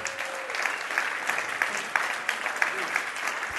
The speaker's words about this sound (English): All right. Uh, hey, that's great. That's great. Thanks for your applause.